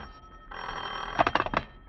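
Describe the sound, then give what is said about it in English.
A telephone bell rings in a living room with a rapid metallic trill, its clattering strikes fairly loud, alone without any voices. “You sit in the living room waiting for Veronica to finish dressing when the phone rings.”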